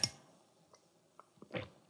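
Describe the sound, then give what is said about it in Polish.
A quiet sip of coffee: a short wet burst, a few faint mouth clicks in near silence, then a soft slurping swallow toward the end. No one speaks. “Łyk kawy, kochani, i zaczynamy.”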